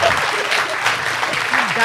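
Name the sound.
applause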